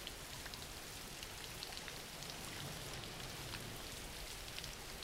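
Steady rain falls continuously, a dense, even hiss of drops spattering on a surface with faint scattered patters, soft and unbroken throughout with no voices.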